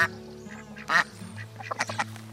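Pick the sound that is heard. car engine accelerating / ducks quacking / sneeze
ducks quacking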